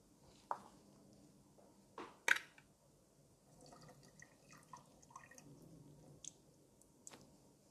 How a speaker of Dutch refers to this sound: Nu maak ik de blikjes tonijn open. En eh, die giet ik eventjes, eh, laat ik even uitlekken. Giet even het water ervan af.